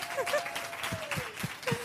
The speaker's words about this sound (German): Also mal einen Applaus für den einzigen ja.